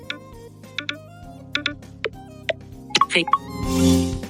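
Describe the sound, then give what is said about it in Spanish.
A series of crisp, high-pitched phone interface clicks and taps, irregularly spaced, made while exiting the Voice Memos app to go to the Phone app, followed by a brief soft whoosh at the end; no one speaks. “Voy a salir de aquí de notas de voz.”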